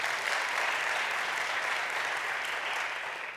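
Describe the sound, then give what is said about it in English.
A large crowd gives God a round of applause, clapping steadily and continuously, a dense wash of many hands at an even, fairly loud level that tapers slightly at the end, with no voices standing out. “That's within the United States, that's international, and I think we should give God a great round of applause for that.”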